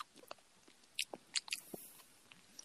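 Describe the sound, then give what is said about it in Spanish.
Crunchy chewing of food, a handful of sharp wet bites and smacks coming irregularly over a few seconds, fairly quiet with no talking. “gordo, ¿cómo come?”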